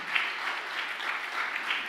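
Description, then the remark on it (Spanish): An audience claps together in a steady, dense wash of applause, many hands blending into an even crackle that holds at a moderate level without pauses or voices. “Dale otro aplauso aparte”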